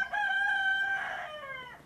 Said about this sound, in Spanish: Saludos por parte del gallo